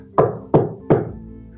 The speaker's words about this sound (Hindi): कि तभी दरवाजे पे किसी ने खटखटाया